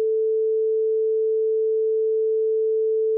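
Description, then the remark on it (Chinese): A continuous radio navigation beam tone from the German X-Gerät night navigation system for bombers, heard where two radio beams intersect and their short and long beeps merge: one steady, unbroken mid-pitched hum that holds the same pitch and loudness throughout, with no gaps, pulses or voices. “这两两种声音混在一起，就形成了连续不断的。”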